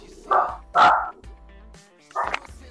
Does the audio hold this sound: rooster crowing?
no